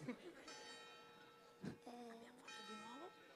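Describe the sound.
A bell rings with a sustained, shimmering tone that lingers for a few seconds, while a voice sounds over it with rising and falling pitch.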